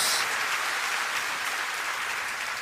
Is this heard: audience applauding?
yes